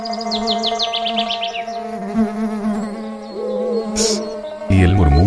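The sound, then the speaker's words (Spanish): Steady, droning buzz of bees with a harmonic hum throughout, rising and falling in pitch as the insects move about, plus a few quick bird chirps early on and a louder buzz at the end. “El zumbido de las abejas.”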